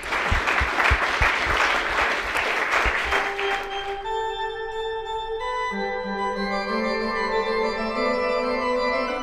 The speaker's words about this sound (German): Ganz, ganz großen Applaus für euch beide an dieser Stelle.